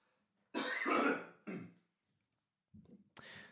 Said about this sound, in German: das mache ich jetzt einmal, aber vom Mikrofon weg, mir hat jemand, äh, eine Sängerin geschrieben, ich soll nicht räuspern, sondern einmal abhusten. Warte, ich mache, ihr hört das jetzt hoffentlich nicht, aber ich mache mal einmal.